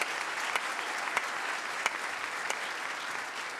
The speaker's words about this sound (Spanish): Dele su mejor ofrenda de palmas. Allá arriba también.